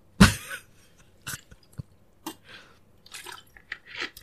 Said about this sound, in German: trinkt Wasser. Äh, oh ja, das, das mache ich jetzt übrigens auch mal als Demonstration. Moment.